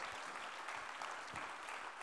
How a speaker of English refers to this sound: Oh, I wish you'd clap your hands unto the Lord if you'd hear what I'm preaching today.